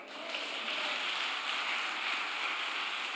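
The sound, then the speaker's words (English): A church audience claps for God during a sermon in a dense, steady wash of applause lasting a few seconds, with individual claps blurring into an even, hissing roar and no voices audible. “Give God a hand clap.”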